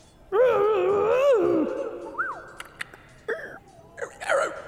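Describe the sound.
A voice imitates steam pouring out of a valve like a train whistle: a long, wavering wail rises and bends for over a second, followed by a few short, sharp squeaky chirps and whistles. It is fairly loud, with no talking.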